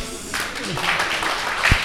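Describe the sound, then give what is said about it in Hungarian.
A short burst of applause from a small group, a dense patter of clapping that starts abruptly and keeps steady, with voices talking faintly underneath. “Tehát, hogy, hogy te kapsz mondjuk két egységnyi tapsot, te kapsz hármat, de ha ketten együtt, akkor egyet.”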